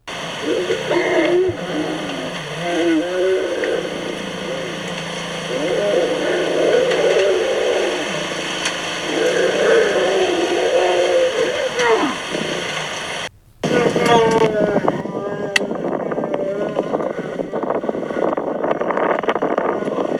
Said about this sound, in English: And it was like, wow, we're going to get to see lions mate and the noise. So we stayed with them. We're the only car, the only car with these lions mating. And we, so here is the audio from me getting to listen and watch lions mating three times.